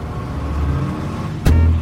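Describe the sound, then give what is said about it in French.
A heavy truck engine rumbles steadily, then a sharp burst of noise cuts in near the end as the engine note deepens and grows louder. The truck is carrying bread, headed for New York. “Le pain est ensuite emmené sur un camion, direction New York.”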